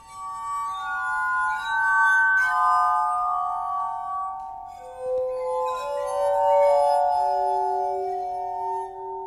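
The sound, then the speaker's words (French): A glass harmonica, played by a musician, plays a slow, gently descending melody of long, pure, ringing tones that overlap and shimmer, clear, with no voices. “je vous aurais bien apporté un harmonica de verre, mais ça coûte 7000 euros”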